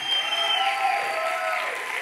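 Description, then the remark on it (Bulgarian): An audience at the church Probuzhdane (Awakening) claps steadily during a sermon, a dense, even wash of many hands that holds at the same loudness throughout, with a faint sustained tone ringing underneath. “Ако ръкопляскаш, ръкопляскай като че си на път да отключиш тая тъмница.”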